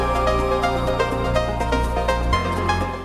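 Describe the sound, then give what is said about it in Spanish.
An electronic dance music track plays steadily with a deep sustained bass, bright synth layers and regular percussive hits; the bass shifts near the end. No voices are present. “Comenzamos una horita con la mejor música electrónica del planeta.”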